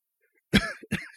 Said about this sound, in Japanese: 咳込んでます。